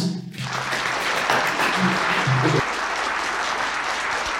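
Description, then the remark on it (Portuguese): Steady applause from a group welcoming a guest, dense crackling claps that start abruptly and continue loud and even for several seconds, with a brief low murmur of voices underneath near the start. “Aplausos!”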